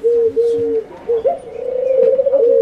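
A pigeon coos loud and clear: a few drawn-out, hollow coos followed by a longer, warbling throaty roll that flutters rapidly toward the end, with no voices.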